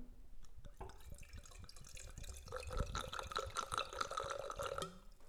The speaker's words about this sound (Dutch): Nou, dan moet je je microfoontje even bij horen. Dan hoor je dus oh dat die gaat slurpen.